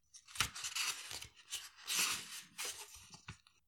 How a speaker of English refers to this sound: Um, but I will just find the little description description of it. You can hear the pages there, sorry.